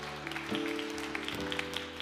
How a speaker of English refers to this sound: Come on, let's put our hands together. Mighty hand clap for God.